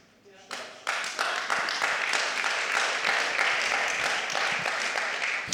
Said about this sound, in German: Ich weiß nicht, wir haben so ein Saying hier bei uns in, in der Move Church. Ich weiß nicht, wie es hier in Frankfurt ist, aber wenn einer klatscht. immer Spaß, immer Spaß.